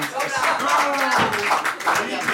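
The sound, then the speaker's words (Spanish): An audience clapping steadily throughout, a dense, crackling patter of many hands at fairly high volume, with voices talking over the applause. “Me encanta. Los aplausos de los hooligans. ¿Estáis aplaudiendo?”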